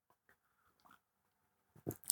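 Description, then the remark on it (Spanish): Quiet mouth sounds of someone sipping coffee: a few faint slurps and lip noises, then a louder wet gulp and swallow at the end, with no talking. “Traguito de café.”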